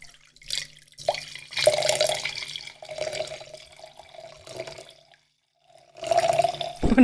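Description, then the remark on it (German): Liquid pours steadily into a glass in several gurgling bursts, with a brief pause before a final pour; the stream's tone rises slightly as the glass fills. No one speaks. “das wird aber ein richtig volles Glas. Nee, ich und es läuft und, läuft und läuft”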